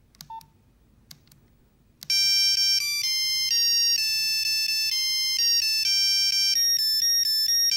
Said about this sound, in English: It's a Nokia uh, 32 10 and it's uh, the coffin dance uh, song uh, yeah.